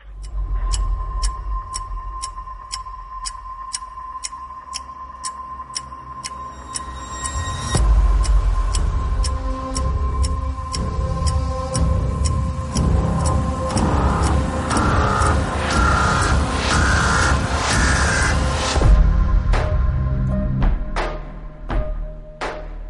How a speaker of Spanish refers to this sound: Y nos habla también de la película Contratiempo. Yo ahora mismo no la ubico, pero creo que Andrés tiene el tráiler, ¿verdad? ¿Lo escuchamos?